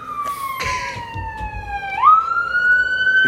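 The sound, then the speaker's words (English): A police car siren wails steadily as it passes outside, its tone sliding slowly downward before jumping back up to a higher pitch, fairly loud and continuous over low rumbling background noise, with no one speaking. “holler if you hear me, then cops, because that was ridiculous”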